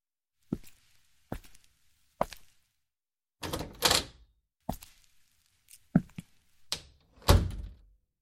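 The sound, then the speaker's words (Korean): A door being closed, heard as a run of dull, irregular thumps and knocks, about nine impacts, some with a brief rattle or scrape after them. No voices. “문이 닫히자 부인이 말했다.”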